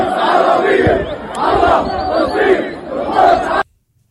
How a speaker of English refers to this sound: Here's the uh, embassy situation in Jordan right now. Seems to be something on fire, and about, ooh, I don't know, 20, 25,000 people in the street. They seem upset.